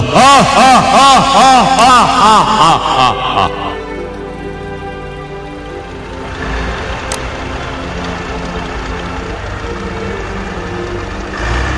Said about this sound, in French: Et les camions de la caravane d'études météorologiques du professeur Euthanasiev s'éloignent. Ils abandonnent la vallée sacrée d'Andiana.